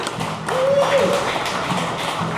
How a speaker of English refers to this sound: I don't know if that applause is for us or the fact that the White Sox are up four to nothing.